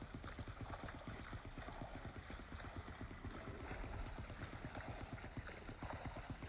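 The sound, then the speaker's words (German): Steady, fairly loud sloshing and churning water with a quick, regular rhythm of strokes as a video game character swims back continuously, with no voices over it. “Ich schwimme jetzt einfach zurück.”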